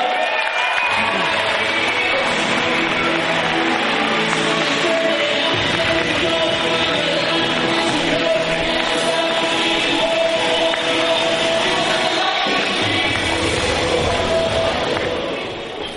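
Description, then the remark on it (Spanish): A large audience at an event applauds loudly and steadily for the leaders who spoke on the stage before, a dense wash of clapping with crowd noise and scattered cheers that carries on throughout and starts to fade at the very end. “Vamos a darle un fuerte aplauso a todos los líderes que se me han antecedido acá.”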